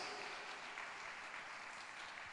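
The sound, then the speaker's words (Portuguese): A crowd claps steadily and loudly in applause to the Messiah, a dense wash of many hands applauding together without pause, with no voices standing out. “Você pode dar um aplauso bem forte ao Messias.”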